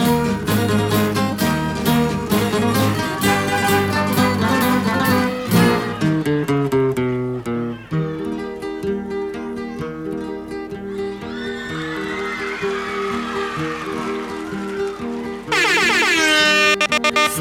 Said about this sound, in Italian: Nel senso che ho voglia di farvi cantare subito una bella canzone, così entriamo immediatamente nello spirito che ci contraddistingue.